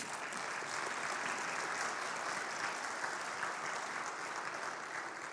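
Steady applause from a crowd, a dense wash of many hands clapping at an even level for the whole stretch without pausing or swelling, and no voices above it.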